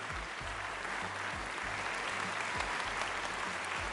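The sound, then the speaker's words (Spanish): Steady applause from a group of people, a dense, continuous patter of clapping hands that holds at an even loudness throughout, with no voices standing out. “Me levanto y te aplaudo compañera, quiero ser tu amiga.”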